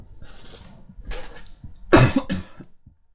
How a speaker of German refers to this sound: Nein, ich habe nur gehustet, spreche du weiter.